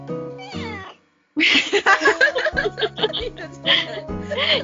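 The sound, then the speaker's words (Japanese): A cat meows loudly, a few drawn-out cries after a brief pause, while people laugh and talk around it. “いいとこで泣きましたね。”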